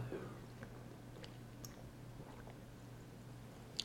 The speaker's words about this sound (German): nachdem ich nochmal einen kleinen Schluck Wasser getrunken habe.